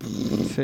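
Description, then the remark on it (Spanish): A voice imitates audio recorded too loud and clipped, a harsh, gritty, distorted growl, fairly loud, in one short burst of under a second. “O si lo grabaste sin querer muy fuerte y está explotado el audio cuando suena tipo...”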